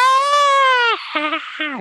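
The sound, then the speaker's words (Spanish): A voice imitates a scream heard from a cinema audience at Gran Plaza watching the seventh Harry Potter film, part 1, when Harry and Hermione seemed about to kiss: one long, loud, sustained wailing cry, falling slightly at the end, followed by two shorter, quieter yelps. “como cuando se oyó muy raro ese grito, ¿verdad?”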